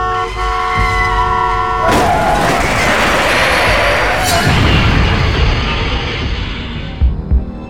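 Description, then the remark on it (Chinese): The horn of a large out-of-control cargo truck blares in a steady, loud, multi-toned chord, then gives way after a couple of seconds to a heavy roaring rush of noise with rumbling and rattling that lasts to the end. “一辆大货车，货车失控了。”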